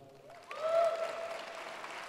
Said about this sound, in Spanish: Dale un fuerte aplauso.